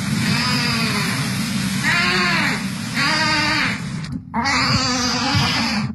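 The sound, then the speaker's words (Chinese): A sick tiger cub named Hunao, the female of a pair of boy-girl twin cubs less than half a month old, cries without stopping, a loud, bleating wail rising and falling in long strained calls, broken only by a brief pause before it starts up again. “这个一直叫个不停的病恹恹的小家伙叫虎脑，他是龙凤胎里的小妹妹。”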